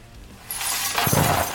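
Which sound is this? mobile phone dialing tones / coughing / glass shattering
glass shattering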